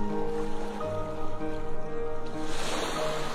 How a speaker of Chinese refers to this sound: 倾听着海浪的声音，闻着。海水带来的咸咸的味道，感觉着海浪的一起一伏。